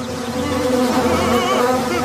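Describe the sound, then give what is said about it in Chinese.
A dense swarm of bees, flying back after being drawn by honey, drones steadily, many overlapping wingbeats forming a loud, continuous buzz with a wavering, slightly shifting pitch and no voices. “你们看，蜂群又飞回来了。”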